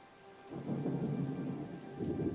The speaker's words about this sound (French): regarde bien, là il, là, là, il va pleuvoir un peu, là. Regarde bien ça. Wow.